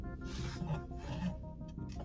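A dog named Buckley scratching at a surface from outside, a steady raspy rubbing sound that continues for about two seconds at a moderate level, with no voices.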